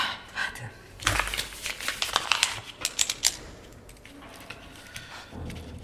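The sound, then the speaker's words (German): Paper handling: a sheet of paper crinkles and rustles in a cluster of sharp, scratchy bursts, then quieter scraping follows as a pen writes a note on it. No one speaks. “Hast du einen Zettel und einen Stift?”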